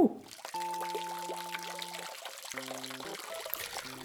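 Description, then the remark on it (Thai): Water pours and trickles steadily from a tap left running, a continuous splashing flow with a soft hiss, while sustained tonal background music plays underneath. No one speaks. “น้องหมีเล็กบอกกี่ครั้งแล้วว่าอย่าเปิดน้ำทิ้งไว้ น้องหมีไม่ได้ตั้งใจน่ะ มันลืมกันได้ พี่หมีเห็นแล้วก็ปิดสิ”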